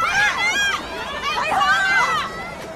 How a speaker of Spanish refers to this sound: Así suena Hong Kong.